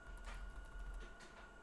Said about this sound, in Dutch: Koffiezetapparaat laat even van zijn horen.